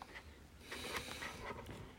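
Scissors snip through a thin plastic sheet covering a newly delivered item being opened, a string of short crinkly, rustling bursts with a faint scrape between them, steady and fairly quiet, with no voices.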